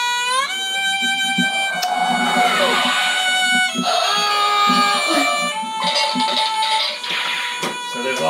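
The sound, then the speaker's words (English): A bowed string refrain, like a violin or cello, plays loud sustained notes that swoop and shift in pitch, moving through several held tones with no talking over it. “Uh, I think it's supposed to be a violin or a cello.”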